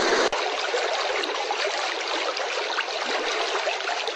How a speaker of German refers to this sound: Hier ist ein plätschernder Bach. Wassergeräusche sind übrigens wirklich extrem entspannend für uns Menschen weil Wasser immer schon bedeutet hat Leben.